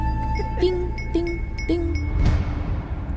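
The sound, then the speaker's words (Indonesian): Three evenly spaced clinks of a fork tapped against a glass, each leaving a short ringing tone over a steady low hum, followed by a softer, noisier knock. “Ada sosok berambut keriting, berwajah pucat dengan mulut yang sangat lebar, sedang memukulkan garpu dan gelas sambil tersenyum”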